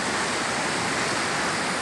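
A steady, dense roar of rushing floodwater current, loud, churning without a break, with no voices over it: a canalized stream overflowing in heavy rain, the water quickly rising over an avenue and sweeping cars along.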